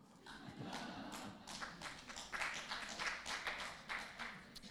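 An audience applauds itself: a dense, steady patter of many hands clapping that holds for about five seconds at a fairly soft, even level, with faint voices mixed underneath.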